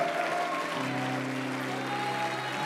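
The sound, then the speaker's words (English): An audience claps their hands to the Lord in worship, in a steady, dense wash of applause that holds at an even loudness throughout, with sustained low musical tones humming underneath. “Come on, let's get, come on, keep clapping your hands to the Lord.”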